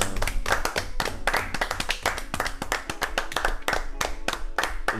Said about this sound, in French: Eh bah écoutez, j'ai envie de qu'on s'applaudisse tous une dernière fois.